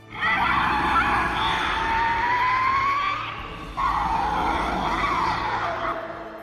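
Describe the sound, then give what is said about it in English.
King Ghidorah's monster roar from a movie: two long, loud, harsh screeching cries, the first with a rising shrill whine through it, separated by a brief pause, with no talking. “I think he has a genuinely unnerving roar.”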